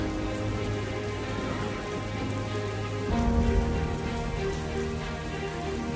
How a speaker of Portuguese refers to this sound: É a chuva, a chuva.